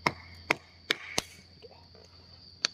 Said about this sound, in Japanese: えっとね、やってた今の音ね、ちょこちょこ聞こえたかもわかんないですけど、あのね、薪を、簡単に言うと、真っ二つに割るんですよ。なんですけど、普通に割ろうと思っても無理なんで、なんか、サバイバルナイフみたいなやつ